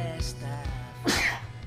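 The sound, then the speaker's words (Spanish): A loud sneeze bursts out near the end, preceded by a couple of shorter, softer breathy bursts, with no talking around it. “Salud. Salud. Salud.”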